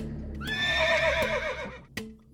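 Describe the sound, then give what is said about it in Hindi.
A horse named Badal lets out a single loud whinny, a shrill, quavering call that slides downward in pitch over about a second and a half, with no talking around it. “बादल हमारा घोड़ा उतना पसंद ना करे था”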